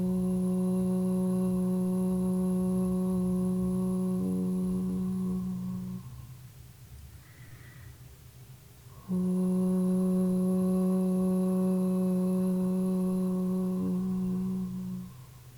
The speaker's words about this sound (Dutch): En dan maak je een O-klank op een klank die fijn voelt voor jou. Die ontspannen voelt, vrij voelt. het hoeft niet mooi te klinken.